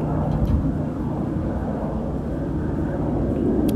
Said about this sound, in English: I'm waiting for this for this train to pass by because I fucking can't.